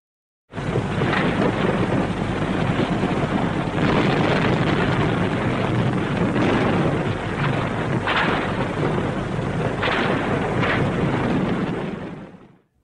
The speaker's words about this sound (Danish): Skuddene, vi hører her, er fra det tyske slagskib Schleswig-Holstein, der om morgenen kl. 4.43 den 1. september 1939 affyrer skud mod den øh, polske garnison på halvøen Vesterplatte, tæt ved byen Danzig.